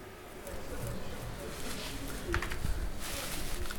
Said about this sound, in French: Ah, c'est le bruit de la terre sèche qui. C'est vrai que c'est tellement sec, je me demande s'il y a vraiment de la vie là-dedans, quoi.